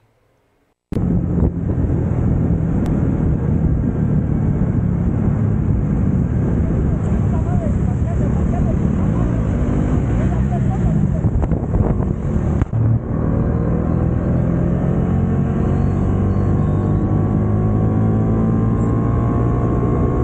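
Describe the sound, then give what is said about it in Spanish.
A motorcycle riding along on the road linking Lechería and Tlalnepantla, recorded by its rider as thieves try to steal it, its engine droning and rising in pitch beneath heavy, continuous wind noise buffeting the microphone, loud throughout after a brief quiet start. “comunica Lechería con Tlalnepantla, donde este señor que iba en una motocicleta tuvo el valor de grabar cuando intentan robarle la moto.”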